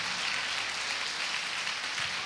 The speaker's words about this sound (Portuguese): Vamos aplaudi-lo.